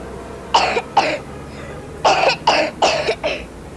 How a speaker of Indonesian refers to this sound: Tuh kan, batuk terus. Mama lepas ya maskernya.